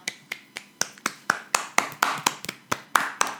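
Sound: hand clap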